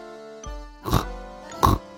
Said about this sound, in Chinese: 可是每天睡觉的时候，小猪嘟嘟总是打呼噜，